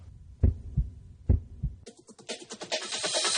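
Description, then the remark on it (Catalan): Two deep, thudding heartbeat pulses, each a lub-dub pair, sound loud before giving way to a brighter, noisy swell of music or ambience. “Tots som un batec.”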